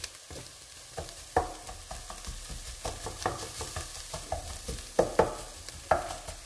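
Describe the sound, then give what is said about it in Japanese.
Onions sizzle steadily in a pan, about ten minutes in and not yet golden brown, before the heat is lowered. A utensil scrapes and stirs them, producing irregular clattering knocks over the continuous frying hiss, with no talking. “ちょうど10分まだまだ玉ねぎはきつね色には程遠いですけど一旦火を弱め終わっておきましょう”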